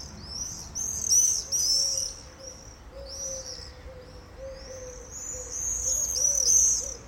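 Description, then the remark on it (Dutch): Shrill, buzzing screams from several common swifts sweep past overhead above a small city garden in Zeeland, the Netherlands, in repeated bursts, high-pitched and fairly loud, over a steady low hum of background ambience. “Dit is eh, eh, de kenmerkende roep van de gierzwaluw nou, zoals de naam eigenlijk al zegt, giert door de”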